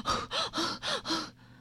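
A voice imitates a boy and a lion panting after running around a rock: five quick, breathy gasps in a steady rhythm, each a loud airy rush of breath, then a brief quiet tail.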